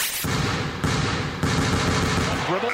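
A basketball is dribbled in a steady rhythm, about three heavy bounces roughly half a second apart, over a loud, dense wash of crowd noise that never lets up.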